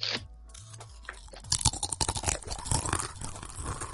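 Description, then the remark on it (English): Loud crunching of a crisp snack being bitten and chewed with the mouth next to a microphone, a burst of dense crackly crunches that keeps going in quick irregular bites after a quiet start. “I got my backup crunch. Here we go.”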